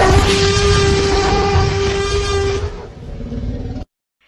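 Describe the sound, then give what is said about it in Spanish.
A loud, movie-style Tyrannosaurus rex roar rumbles for almost four seconds with a droning, horn-like tone, softens slightly near the end, then cuts off abruptly into silence. “Si respondiste T-Rex o Tiranosaurio Rex, muy bien.”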